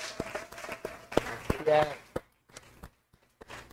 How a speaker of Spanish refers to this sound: un fuerte aplauso, por favor.